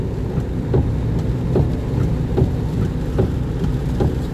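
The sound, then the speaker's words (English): Steady rain with a dense low rumble and scattered soft taps of drops, continuous and fairly loud, with no voices. “Uh, anyway, um, it's raining don't know what I'm gonna.”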